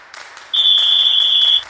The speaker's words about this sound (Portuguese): O último quarto agora. Apito juiz.